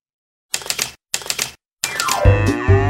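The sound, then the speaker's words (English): Two quick bursts of sharp typewriter key clacks, separated by brief pauses, then a third longer run of clatter that gives way to a loud, low, droning tone. “Click, clack, moo. Cows that type.”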